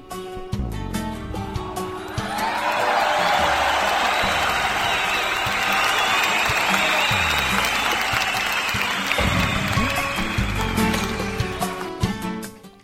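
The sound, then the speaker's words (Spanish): Loud, sustained applause on a radio program, recognizing the program's production team, building after a couple of seconds into a dense wash of clapping that holds steady before tapering off at the end, with a few cheers mixed in. “Y familia, eso también debe de reconocerse con un fuerte aplauso.”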